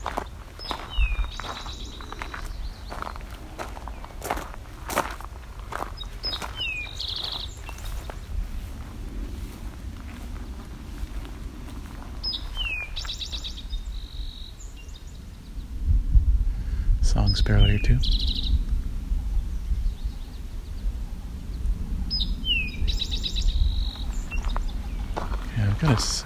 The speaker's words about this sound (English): coming up on another Eastern Towhee doing uh, Drink Your Tea call.